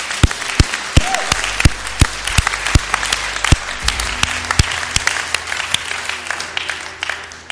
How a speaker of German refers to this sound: Vielen Dank. Das ist cool. Einen fetten Applaus für euch.